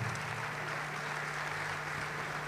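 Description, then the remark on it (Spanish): Sustained applause from an audience at a tribute to Diego Maradona in an amphitheatre, before a musician's ensemble performs: a dense, steady wash of many hands clapping at an even level throughout, with a low constant hum underneath and no voices. “Bueno, que continúe el aplauso, porque viene el ensamble de ….”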